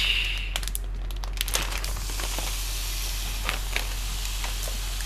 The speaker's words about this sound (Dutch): Oké, deze is warm. Ik ga nu gehakt erin doen. 500 gram. Ik hoop dat hij echt geluid maakt.